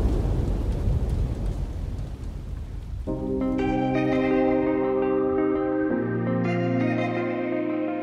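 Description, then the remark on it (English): Steady rain with a low thunder rumble fills the first few seconds, then sustained musical chords swell in and take over while the rain fades beneath them. “When you think all your plans are working out perfectly, it rains.”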